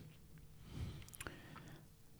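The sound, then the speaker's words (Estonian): Quiet chewing of gummy candy: soft, squishy mouth sounds with a few moist smacks and clicks over about two seconds, with no talking. “ma ei peagi muudki tegema, ma pean ainult kummikommid ära sööma ja ongi korras ju”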